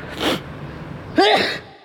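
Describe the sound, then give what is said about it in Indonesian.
Two short coughs: first a breathy, noisy burst, then after a pause a louder, rougher one with a voiced, throaty edge. No talking. “Anjing ada batuknya segala ini.”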